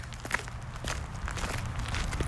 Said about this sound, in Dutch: ik lopen nog een rondje over de begraafplaats. Langs 19e-eeuwse opzichtige grafmonumenten met krulletters en strakke zakelijke grafstenen uit de jaren 50. Langs de Chinese hoek en de Surinaamse.